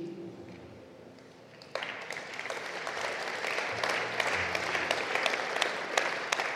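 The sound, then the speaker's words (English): An audience breaks into applause after a quieter opening, with many hands clapping in a dense, steady patter that grows slightly louder and fuller toward the end. “Why are you clapping like it's not a big deal?”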